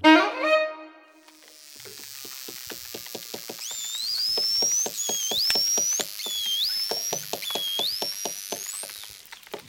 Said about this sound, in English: And finally, those noises you've just heard were made by bottlenose dolphins, they communicate with each other using a wide range of squeaks, chirps, screams, grunts, and whistles.